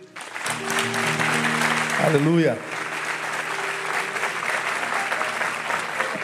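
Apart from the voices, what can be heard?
audience applauding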